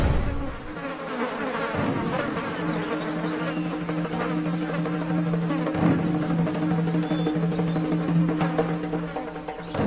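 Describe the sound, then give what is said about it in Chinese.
Houseflies buzzing steadily throughout, a dense, continuous drone with a low hum and wavering higher whines from several flies overlapping, fairly loud, with no voices. “苍蝇嗜血，苍蝇居于死者发间，这说明死者发缝间定有血迹。”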